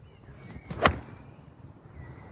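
A single sharp crack of a golf club striking a ball, hit by a lone man out in open nature, cuts through quiet outdoor ambience, followed by calm with a faint, thin high tone lingering in the background.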